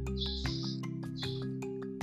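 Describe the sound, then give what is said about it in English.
Shrill, high-pitched bird chirps come in two sustained bursts, interspersed with short sharp clicks, over a steady low background hum. No one speaks. “Yeah, those, bird, those birds sound like a fire alarm.”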